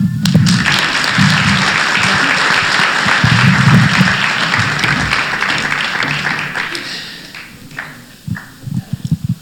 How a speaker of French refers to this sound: On donne un bon main d'applaudissement.